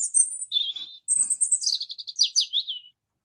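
A small bird chirps in two quick bursts, high-pitched warbling notes followed by a rapid run of descending twitters, clear with no other sounds.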